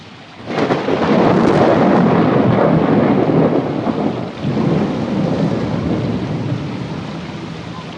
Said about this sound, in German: Das Gewitter? Eins, zwei, drei, vier, fünf, Noch fünf Meilen entfernt. Er scheint näher zu kommen.